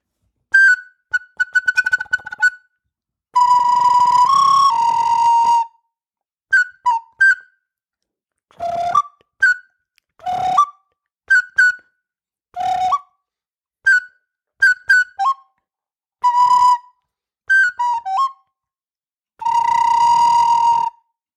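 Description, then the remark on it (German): Someone whistles an imitation of sparrow chirping: bursts of quick, high chirps and trills mixed with a few longer held notes, separated by short pauses, clear, with no talking. “Und ähm, weil ich an diesen Vogel, den wir zuletzt nochmal ange, ähm, angetupft haben, den Sperz, finde ich, kommt vielleicht diesem Spatzengezwitscher mhm.”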